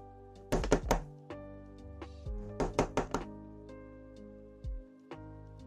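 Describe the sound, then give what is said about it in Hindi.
Someone raps on a door in quick bursts: three sharp, loud knocks, a pause, then a faster group of four, and one final thud, over a low, steady musical drone. “कल की ही बात है अचानक मेरा दरवाजा किसी ने खटखटाया”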